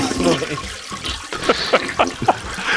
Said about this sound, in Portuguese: põe um efeito de descarga agora, velho. Fazendo um grande favor. Seria mais adequado.